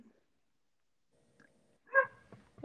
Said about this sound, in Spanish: Algo que me llama la atención ahorita que está Bob ladrando mi perrito.